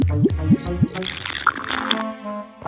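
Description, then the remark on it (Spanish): Someone sips warm honey water with lemon balm: three quick, wet, pitch-bending slurps in a row, followed by a softer gulp and a brief liquid gurgle, with no talking. “Un sorbito de agüita de miel con toronjil.”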